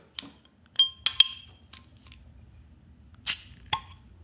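A crown-capped beer bottle, its cap printed with a steam boiler and 'Steamworks', being opened: a few sharp metallic clinks of the opener on the cap, then a louder pop with a brief hiss and a final clink, without talking.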